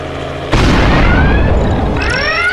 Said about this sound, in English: Jesus tap dancing Christ! What the hell was that? Ah, something exploded on that cop copter! Did we do it? No, I think the engines just failed. They're going down!